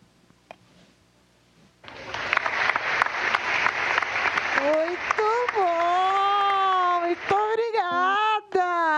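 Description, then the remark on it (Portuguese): Loud, dense applause starts after a short quiet pause and continues steadily, soon joined by sustained high-pitched cheering voices that rise and fall over the clapping. “tava louca por essa salva de palmas, gente.”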